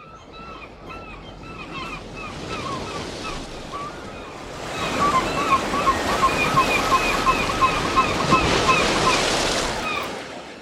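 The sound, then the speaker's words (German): Waves lap and wash steadily at the Elpersbüttel bathing spot on the North Sea coast in Dithmarschen, Germany, on a hot day, swelling louder about halfway through into a fuller, rushing surf, with faint chirping calls in the background and no one speaking. “Heute bei der Hitze nehme ich euch direkt mit ans Wasser.”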